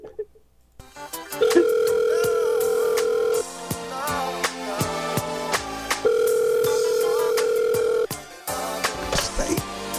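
A phone rings twice over the line, each ring a long, steady electronic tone lasting about two seconds, with a busy music track with sharp beats playing underneath.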